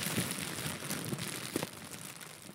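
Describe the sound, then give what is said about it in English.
Soft crinkling of plastic, a continuous papery rustle with a few brief sharper crackles, quiet and steady with no voices. “It can be the sound of plastic gently crinkling”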